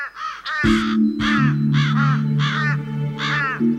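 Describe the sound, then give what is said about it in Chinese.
Several crows perched in a tree in a Gobi desert caw harshly in a steady, overlapping series of raspy calls, loud throughout, over a low sustained droning tone that enters after the first couple of caws. “一群垂头丧气的乌鸦正蹲在树上。”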